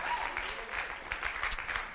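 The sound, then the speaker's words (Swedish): A church audience clapping steadily for friends who played and sang, a dense, continuous patter of many hands at moderate volume with no voices standing out. “Varsågod och sitt, då ska vi våra vänner en applåd.”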